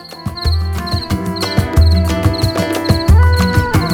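Short bursts of high, trilling cricket-like chirps repeat every half second or so over a loud, bass-heavy musical jingle with punchy drum hits.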